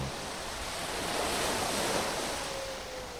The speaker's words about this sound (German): Sie ist tatsächlich im Bauch eines Schiffes, im Laderaum gelandet. Und das Schiff ist auf hoher See und pflügt durch die Wellen.